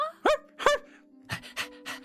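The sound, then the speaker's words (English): A dog named Jiminy gives two short, high whimpering yips, then pants in three quick breathy huffs, fairly loud, with no one talking. “Here, doggy!”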